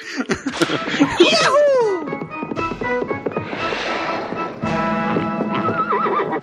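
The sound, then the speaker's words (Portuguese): Horse hooves clop in a steady rhythm while a horse lets out loud, wavering neighs, clear, with some laughter mixed into the background. “ah, parece que o chefe está vindo a cavalo para o trabalho.”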